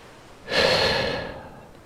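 A voice imitates a single long, breathy yawn of a sailor on a ship's deck stretching his arms overhead: it swells abruptly with a voiced, airy tone, holds for nearly a second, then slowly trails off, with no talking around it.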